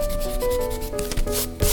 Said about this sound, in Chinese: 哎，哥哥，你为什么把刚画好的嘴巴又擦掉呢？ 三角龙有像鹦鹉一样的嘴巴，可是我一直画不像，就擦掉再重画喽。